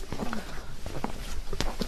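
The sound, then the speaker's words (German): Footsteps echo through the side aisle of a Romanesque church, a series of irregular taps spaced apart over a steady roomy background hum, with faint murmuring. “Ja, und jetzt hören wir schon. Es halt. Es halt. Wir befinden uns jetzt im Kirchraum, im Seitenschiff dieser romanischen Kirche.”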